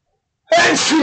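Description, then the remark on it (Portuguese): A single loud sneeze bursts out after a moment of silence, sharp at the start and trailing into a breathy tail. “Eita, saúde, obrigado.”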